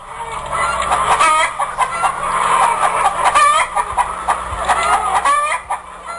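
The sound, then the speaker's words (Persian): Several hens cluck continuously and fairly loudly, their busy, overlapping calls forming a steady chatter with occasional sharper squawks and a faint crow-like call, over a hissy background. “ای مرغ زرد پاکوتا کاکل هنای نکتلا هی دنبال دویدم رنج سفر کشیدم خوب شد که پیدات کردم”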